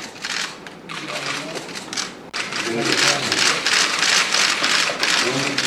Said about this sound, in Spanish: Venga. Más aplauso.